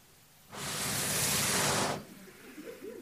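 A cold, steady gust of wind blowing in off the sea across the land in northern Germany rushes past, a loud breathy hiss lasting about a second and a half that starts and cuts off abruptly, followed by a faint low murmur.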